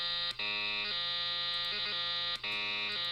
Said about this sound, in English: Thanks for listening to my new uh, ringtone.